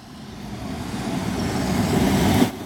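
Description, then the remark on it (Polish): A train rumbles loudly at a station, its low, heavy roar swelling steadily over a few seconds before a brief sharp burst near the end. No one speaks. “Słyszę straszny hałas. Mówię ci, że mam pociąg już.”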